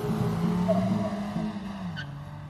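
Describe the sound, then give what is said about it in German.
A car's tires screech in a sustained, loud squeal as the driver swings hard through a 180-degree turn and races back, the engine droning underneath, with no voices. “Als die Nachricht endlich das betreffende Fahrzeug erreicht, macht der Fahrer eine 180-Grad-Wendung und rast zurück.”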